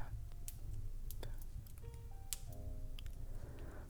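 A fireplace crackles quietly, with scattered sharp pops and snaps at irregular intervals over a soft, steady low rumble of burning.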